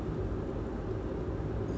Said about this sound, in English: And if you can't already tell, uh, this is a driving one. I am currently in the car, making my way down south.